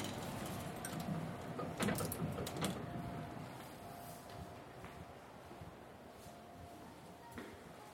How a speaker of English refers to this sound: I tried to collect myself on the creaky pre war elevator to Alison's floor